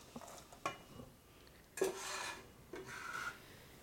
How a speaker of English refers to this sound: And we need to just stir those in that bubbling butter till they soften up a bit. I'm going to turn the heat up to medium high for this because I'm going to be watching it really carefully, so that's fine.